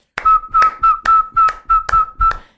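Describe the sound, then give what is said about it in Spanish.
A person in a yard whistles a steady, mid-pitched note over about six loud, evenly spaced hand claps, roughly two per second, to call a dog, with no talking. “Y yo voy al patio, empiezo a aplaudir y empiezo a pitar.”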